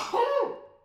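A single sneeze: a sharp, loud burst of breathy noise with a brief voiced edge that quickly trails off into quiet, with no talking during it.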